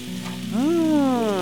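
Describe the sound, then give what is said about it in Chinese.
An egg sizzles in a frying pan, a steady crackling hiss throughout, while a smooth pitched tone slides upward and then slowly glides back down over it. “如果我将蛋煎成荷花的样子，那么即便现在是冬天了，皇上也能够欣赏到荷花啦！”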